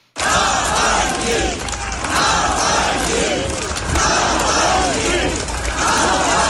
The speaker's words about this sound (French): Ils ont scandé ce nom que le président russe n'employait jamais pour parler de son opposant. Il disait ce citoyen ou, ou cette personne que vous mentionnez.